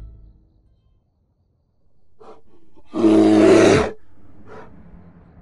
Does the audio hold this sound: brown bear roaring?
yes